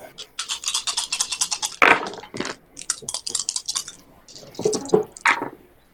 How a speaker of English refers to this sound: I got two sixes. Okay. I didn't get any ones on my stress dice.